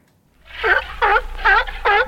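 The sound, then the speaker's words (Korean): A stomach growls from hunger while dieting: four drawn-out, gurgling, moan-like rumbles in a steady rhythm, each about a third of a second long, with no talking. “다이어트 때문에 내 배에서 나는 꼬르륵 소리 들어볼게요.”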